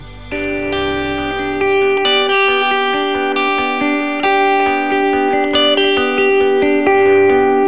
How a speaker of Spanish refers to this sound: quiero que me pongas eh, el número 6, el track, …, vamos a escucharlo